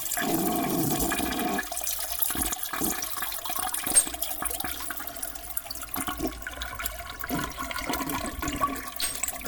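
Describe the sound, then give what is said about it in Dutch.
A toilet flush sound effect: a loud rushing swirl of water that gurgles and drains steadily for several seconds, with no one speaking. “Nou, dan komt het eh, toiletgeluid. Die gaan we wegspoelen bij deze.”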